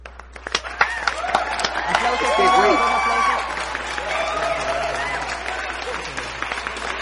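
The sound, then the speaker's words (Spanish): A burst of applause with scattered cheering and whoops, dense clapping throughout, while excited voices shout over it; the noise swells in the middle and stays loud to the end. “Un aplauso, un aplauso, por favor.”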